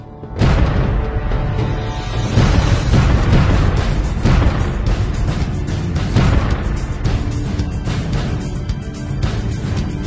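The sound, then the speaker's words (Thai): A sustained barrage of heavy booms and rumbling blasts, dense and continuous like artillery or explosions, with repeated sharp bursts layered over a deep, loud low-end roar, from a company-level military tactical exercise with live ammunition. “โจมตีฉบฉวยด้วยเรือยาง และการดำเนินกลยุทธ์ระดับกองร้อยด้วยกระสุนจริง”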